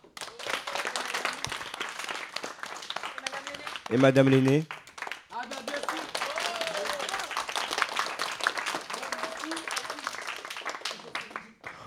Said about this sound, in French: Applaudissez-les, s'il vous plaît.